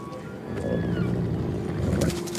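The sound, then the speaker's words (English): A deer calls with a low, drawn-out, groaning bellow that holds steady for a couple of seconds, with faint thin whistling tones above it and no talking. “It's just a deer.”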